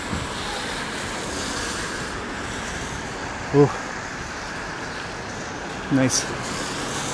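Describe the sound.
Tires hiss steadily on a wet road at night as cars pass, a continuous rushing wash filling the whole scene, with a man briefly speaking a couple of times over it; the weather is wet but not cold.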